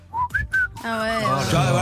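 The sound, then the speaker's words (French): Someone whistles improvised, random notes: three short, aimless notes stepping upward, then slides into a longer, wavering tone with a buzzy, voice-like edge, moderately loud with no talking. “Le 11e, c'est siffler n'importe quoi en impro”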